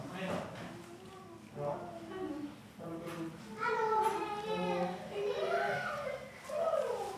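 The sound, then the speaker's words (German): Several children's high voices chatter and shout happily over one another, growing louder and more excited toward the end, like kids playing in an apartment. “Fröhliches Kindergeschrei.”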